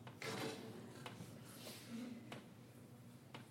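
A metal latch is worked open with a few sharp clanks and rattling mechanical clicks spread over several seconds, followed by the shifting of a door, heard fairly clear.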